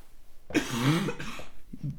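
A harsh cough: one long raspy burst followed by a shorter second hack and a faint trailing rasp, with no talking around it.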